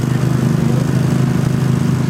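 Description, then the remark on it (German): The engine of a Riverside water pump, able to move 2,500 litres per minute, is started to pump out water such as from a flooded basement: a loud, steady rumbling drone with a fast, even throb and no pauses or voices over it. “Okay, der Motor wird jetzt angeworfen, um all das Wasser eben rauszubringen, das zum Beispiel ein ähm, Keller geflutet hat.”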